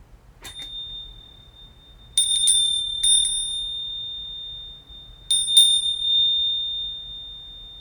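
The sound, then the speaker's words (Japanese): A Japanese wind chime (fuurin), a traditional sign of summer in Japan, rings in several bright, clear tinkling bursts, its high metallic tone lingering between strikes, alone against a quiet background. “で、もう一つのね、そう、今回のね、夏の風物詩、風鈴なんですけど、私これがね、大好きなんですよね。”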